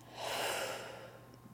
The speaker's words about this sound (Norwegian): Da prøver vi det. OK. Og så puster vi ut.